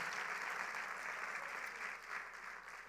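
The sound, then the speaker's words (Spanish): Steady applause from an audience applauding the Lord for a prophetic word, a dense crackle of many hands clapping at once, holding a fairly even level throughout with no voices standing out. “Alguien está aplaudiendo al Señor porque está creyendo una palabra profética.”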